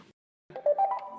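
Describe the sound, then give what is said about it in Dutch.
A short electronic chime from a Segway electric scooter, the first model Segway made: a brief click, a pause, then a quick rising sequence of bright beeping tones lasting under a second, clear. “Het is het geluid van een elektrische scooter van Segway.”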